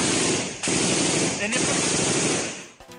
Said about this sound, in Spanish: Hay una fuerte balacera